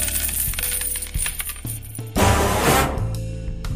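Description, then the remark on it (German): A coin drops and bounces, giving off a bright metallic ringing that continues in quick clinks before settling, fairly loud with no voices. “Spanne er die Pferde ein und spute sich, denn springend klingt die Münze.”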